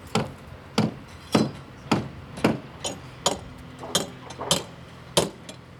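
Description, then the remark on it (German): Repeated hammer blows strike wood at an uneven pace, about a dozen sharp knocks, some overlapping as from several workers, with a faint background hum and no talking. About 50 workers in helmets and hi-vis vests are building wooden formwork for the exterior walls of two factory halls at a construction site. “Rund 50 Arbeiter, korrekt bekleidet mit Helmen und Warnwesten, verschallen die Außenwände für zwei Werkhallen.”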